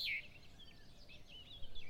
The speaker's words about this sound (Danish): Fuglene elsker også det dejlige vejr, og man begynder at kunne høre flere og flere fugle synge.